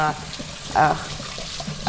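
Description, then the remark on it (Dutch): Water runs steadily from a tap into a blender jug being rinsed in a sink, a continuous splashing hiss with small shifts as the flow hits the jug, and brief voice sounds mixed in. “Ik heb deze uh, blenderkan ben ik aan het schoonmaken.”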